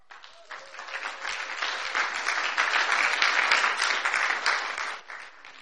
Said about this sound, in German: Ihr drei könnt euch mal wieder hinsetzen. Ihr kriegt einen wahnsinnigen Applaus.